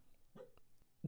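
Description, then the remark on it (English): The dog Rigby gives a couple of soft, muffled woofs in his sleep, two brief puffs of sound separated by a short pause, faint, with no one talking. “Sorry, you might have heard a faint noise, but that was our dog Rigby woofing in his sleep.”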